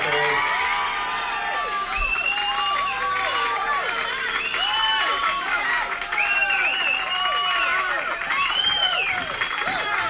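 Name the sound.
crowd applause and cheering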